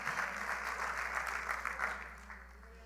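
Dense, sustained audience applause given as a louder round for the King of Kings, Lord of Lords, with many hands clapping in a steady crackling wash, holding strong for about two seconds before tapering off toward the end. No speech over it.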